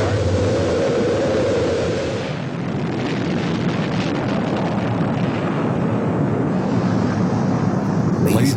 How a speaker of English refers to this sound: The images of Apollo 11 launching into space were used, including the countdown. A few seconds away from switching to the redundant sense sequencer, T minus 10, 9, 8, 7, 6, 5, 4. We've gone for main engine start. We have main engine start.